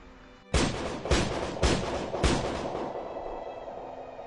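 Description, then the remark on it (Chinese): Four loud, sharp gunshots crack out in quick, fairly even succession inside a small cave of six cubic meters during a wind and rain storm, each blast leaving a dense, booming reverberation that lingers and slowly fades after the last shot. “鞭炮似的爆裂声震动了这个小小的山洞，在这六立方米的空间里冲击回荡。”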